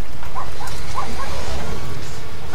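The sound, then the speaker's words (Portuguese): Several dogs bark in a neighbourhood, a handful of short, scattered yaps over a steady, loud wash of outdoor noise and rumble. “Por todo o bairro vêem-se e ouvem-se cães.”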